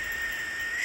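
A sustained, shrill screech from a northern hawk owl, a medium-sized owl, recorded on a phone during a morning walk near Denali National Park, Alaska; a thin piercing tone holding steady for under a second, heard alone against a faint hissy background.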